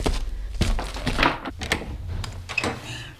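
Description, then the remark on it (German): A few dull, heavy knocks on the door of Room 101, landing at uneven intervals over a low rumbling background, with no voices. “Ein paar Minuten später klopfte es an die Tür von Zimmer 101.”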